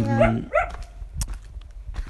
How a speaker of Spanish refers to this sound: guau guau sí, los, perros, los cachorros de siempre. Son amigos ya, pero nos ladran igual como parte.